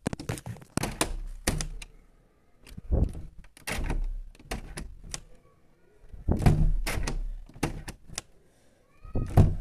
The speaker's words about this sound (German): Zum Beispiel werde ich jetzt einfach das Fenster öffnen und wieder zumachen und das Ganze fünfmal und das ist richtig krass spannend, ne?